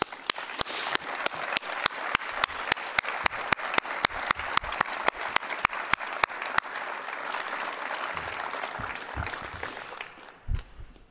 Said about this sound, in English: I want my family to stand up. Let's give my family a round of applause.